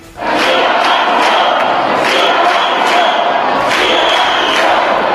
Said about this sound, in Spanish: Pues bien, ha sido elegida alcaldesa María Fernanda Sánchez, de siempre don Benito, contraria a la fusión, gracias a los cinco votos del Partido Popular y con estos gritos en el Pleno.